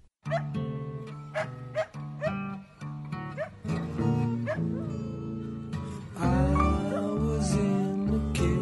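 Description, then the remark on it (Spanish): A dog standing next to a band howls into a microphone as the band plays a song, its long wavering cries sliding up and down over steady instrumental music. The howls are loud, and the band swells louder near the end. “Es muy bella esta grabación porque la banda interpreta una canción y el perro que está junto a ellos aulla, le pusieron un micrófono y lo volvieron parte de esto que lo compartimos con ustedes.”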